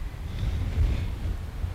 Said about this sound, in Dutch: En zoals je kunt horen is hier een gierende wind. De zuidoosterwind die hier een paar maanden per jaar waait.